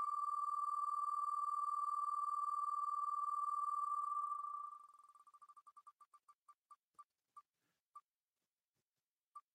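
Prize wheel spinning: rapid electronic beeps blur into a steady tone, then slow into separate ticks spaced wider and wider until the wheel stops. No one speaks.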